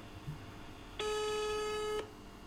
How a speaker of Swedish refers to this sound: Jag ringer upp eh, min vän